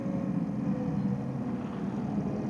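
A car's low engine rumble holds steady, a continuous droning hum with a slight rough flutter and no voices over it, as the car drives up to the roadside and slows down.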